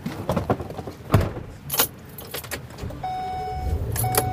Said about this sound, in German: Zur Snow Lodge am berühmten Old Faithful Geysir geht es nur mit dem Schneebus eines Touranbieters knallgelbe Busse, deren Reifen einen Durchmesser von mehr als einem Meter haben.